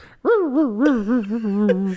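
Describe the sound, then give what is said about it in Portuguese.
A voice imitates a motorcycle engine revving: one sustained, buzzy tone that surges up and down in quick waves for about two seconds, fairly loud, with no other sounds. “ah, lá, até fazendo o barulho da moto, só cortando giro.”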